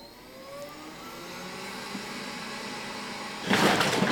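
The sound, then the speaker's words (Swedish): A small white voice-controlled robot vacuum cleaner whirs to life after a spoken command to start cleaning. Its steady motor hum builds gradually, then its suction kicks in with a sudden louder rushing roar near the end, heard alone. “Här kommer en liten vit eh, dammsugarrobot ut då.”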